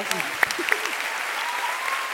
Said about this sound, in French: On peut applaudir bien fort